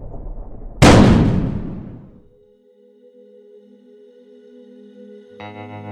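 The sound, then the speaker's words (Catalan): A single loud pistol shot cracks out and booms away over about a second, leaving a steady high-pitched ringing tone that hums on until a brighter tonal layer joins near the end. “Los ojos volvían a abrirse, los oídos ensordecidos por el estridente disparo, el dolor recorriendo su rostro y movilizando cada una de sus extremidades.”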